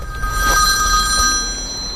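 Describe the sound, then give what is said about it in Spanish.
A telephone rings steadily and fairly loudly, its bright, shrill tone sustained without a break for the whole two seconds. No one speaks. “¿Ese teléfono de quién es?”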